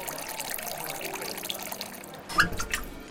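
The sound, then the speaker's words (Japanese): At a water bar in Kobe that serves only tap water, the bar's master pours tap water into a glass: water runs and splashes steadily, a soft hissing trickle that swells near the end with a brighter splash and a faint ringing note from the glass. “水曜の夕暮れ時にオープンする水道水だけを提供する水飲みバーマスターが手慣れた手つきでグラスに水道水を注ぎ”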